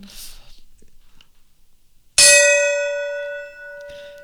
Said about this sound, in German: Dann schlagen Sie den Gong, Eure Hoheit.